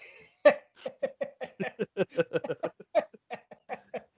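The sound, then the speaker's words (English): A person makes a rapid run of repeated, voiced gagging sounds, about a dozen short retching bursts in quick rhythm, fairly loud, imitating someone gagging. “I'm doing these gag sounds and someone's listening to this in their fucking car in the middle of traffic.”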